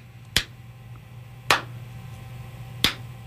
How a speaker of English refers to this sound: That's a sarcastic clap.